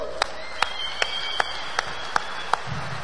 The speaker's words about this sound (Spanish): Aplauso para mi diamante ejecutivo.